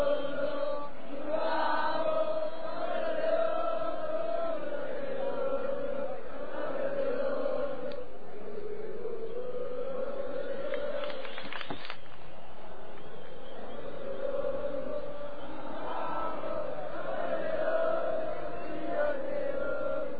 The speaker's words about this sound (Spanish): está la hinchada … para abrir esta última media hora de programa. Desde algún inédito ahí grabado en cinta. Y ahí la banda en vivo acompañando a la, a la monada.